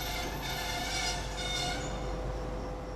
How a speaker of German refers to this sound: Gott sei Dank, hier kommt jetzt auch mal ein Zug. Ich habe mich schon gewundert, was ist das eigentlich für ein Bahnhof? Ein einzelner ihr, Wagen.